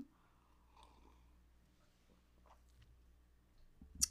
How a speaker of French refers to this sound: Moi, je vais prendre une petite gorgée de ma tisane.